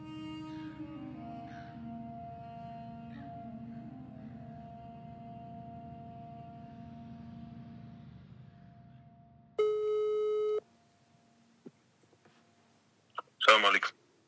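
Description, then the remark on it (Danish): A low, steady rumbling drone gives way to a single telephone ringing tone lasting about a second as a call is placed to a sheikh in Svendborg, followed by a few faint clicks and a short crackling burst near the end. “ringer op til Scheiken fra Svendborg for at spørge til hans forbindelse til Team Dava.”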